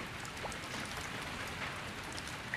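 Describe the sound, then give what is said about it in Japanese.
Steady, dense rain pours down with a low gusting rumble of wind beneath it, a continuous hiss that never lets up, heard alone with no voices. “外を見ると、激しい風雨である。”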